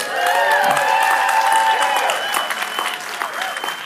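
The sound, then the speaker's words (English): A church audience at the Community of Hope Lake Worth campus claps steadily and loudly while several voices cheer and whoop over the applause, the cheering easing off midway as the clapping continues, before a pastor's first sermon. “Don't cheer yet, it's my first sermon, okay?”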